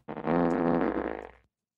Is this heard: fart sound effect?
yes